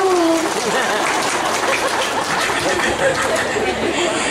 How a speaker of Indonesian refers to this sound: tepuk tangan dulu dong buat pak